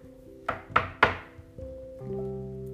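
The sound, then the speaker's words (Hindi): Three sharp knocks on the wooden door of Monkey Uncle's house in quick, even succession, fairly loud, over a soft sustained musical background that shifts tone afterward. “उसे दिखा monkey uncle का घर वहां गए उसने दरवाजे में खटखटाया”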